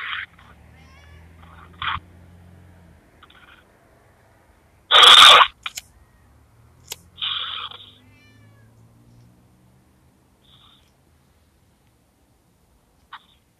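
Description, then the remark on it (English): A cat trying to climb up a person meows several times in short, scattered cries, fairly clear, with a loud brief scuffing burst midway and quiet stretches in between. “Get off me, kitty.”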